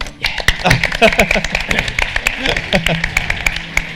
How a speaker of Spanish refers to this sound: ¡Un aplauso!